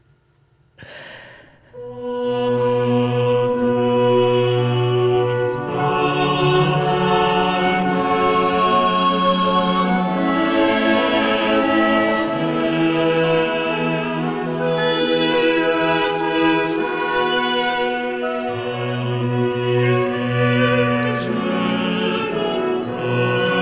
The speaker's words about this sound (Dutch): We waren dan super blij dat we het eindelijk gevonden hebben, het paternoster op Kataarse wijze. Ik versta er niks van, eerlijk gezegd.